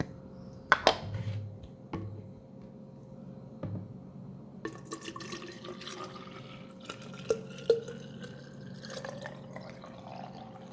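Water trickles and splashes into water bottles as they are filled, with a few sharp clinks and drips scattered throughout and a faint steady hum underneath. No one speaks.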